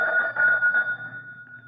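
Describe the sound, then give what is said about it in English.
A pull doorbell rings with a bright, wavering metallic tone that pulses for a moment and then fades away over under two seconds, with no voices. “gosh, what a funny sounding doorbell.”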